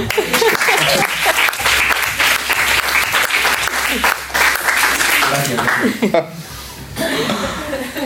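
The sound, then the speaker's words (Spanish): Steady, loud applause from a small group, with chuckles and excited voices mixed in, a brief dip near the end before the clapping picks up again. “Y eso merece un aplauso.”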